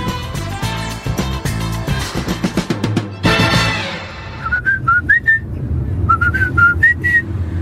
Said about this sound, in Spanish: ¿Y por qué me cantas el feliz cumpleaños ahora?